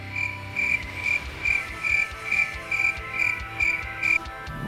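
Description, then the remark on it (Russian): Crickets chirp in a steady, even rhythm, roughly two shrill pulses per second, over a low rumbling background. No one speaks. “Про кого? Сверчки.”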